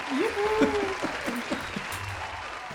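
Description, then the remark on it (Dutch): A small group claps steadily in a dense, even patter that stays at a similar level throughout, while a voice talks briefly over the applause. “En dan doen we een applaus.”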